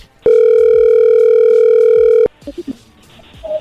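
A phone call being placed rings on the line: one loud, steady electronic ringback tone holds for about two seconds, then cuts off abruptly, leaving faint murmured voices and small clicks.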